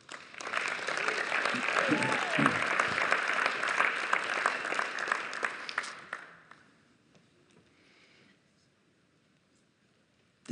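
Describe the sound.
An audience at a church service applauds after the closing blessing, with steady, dense clapping for about six seconds before it fades out, leaving near silence; a few faint voices can be heard amid the applause.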